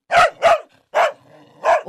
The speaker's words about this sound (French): Attends, on va faire un test. On a des aboiements. Ben on va essayer de décoder.